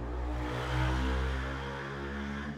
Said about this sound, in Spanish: Puta, eso fue un, eso fue un carro de los que odio bien cabrón. Fue una moto castrosa.